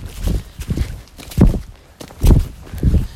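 A ridden horse's hooves clip-clop at a walking pace, five or six dull thuds in an uneven rhythm, fairly loud, with no voices.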